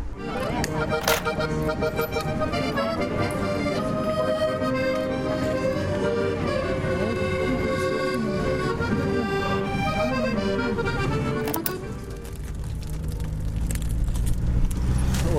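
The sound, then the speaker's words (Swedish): Steady engine rumble and road noise fill the space from inside a moving bus travelling away from Tiraspol, with light rattling and clinking over the drone and a brief swell near the end. “återigen i en buss på väg bort från Tiraspol.”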